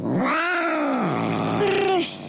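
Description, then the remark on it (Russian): An angry cat, whose tail a boy has been pulling, lets out a loud, drawn-out yowl that rises and bends in pitch, then breaks into a second strained wail with a hissy edge at the end. “рассердившись, кот заплакал, цапнул мальчика за нос.”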